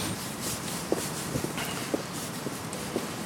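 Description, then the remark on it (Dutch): Footsteps of people walking outdoors, steady crunching steps about twice a second, over a constant hiss of outdoor ambience with no talking. “Ja, en dat gaan we nu even lopen.”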